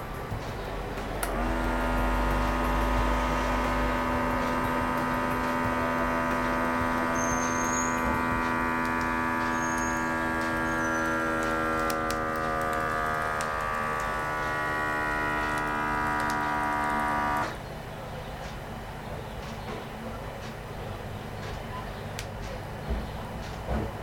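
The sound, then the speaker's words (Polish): An electronic blood pressure monitor, started with its start button and its cuff at heart level, inflates with a steady, buzzing motor hum for about sixteen seconds, then the pump cuts off abruptly and a quieter airy release follows as the cuff deflates; this model does not click with the pulse. “i w tym momencie powietrze schodzi.”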